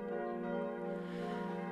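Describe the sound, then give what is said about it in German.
Three new bronze church bells made by Bachert in Karlsruhe ring under the slate-covered pointed roof of the church's massive tower. They have a rich, sustained tone, with overlapping strikes blending into a continuous humming wash that stays fairly loud and even throughout. “Oder dass man vor einem Jahr das Geld aufbrachte für drei neue Bronzeglocken von Bachert in Karlsruhe. Die läuten unter dem schiefergedeckten Spitzdach des massigen Turmes, der die Kirche nach Osten abschließt.”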